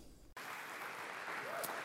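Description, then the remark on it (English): A sudden burst of crowd applause and cheering at a church starts after a brief quiet moment, then continues as a steady, dense wash of clapping and voices until the end. “Thanks for cheering.”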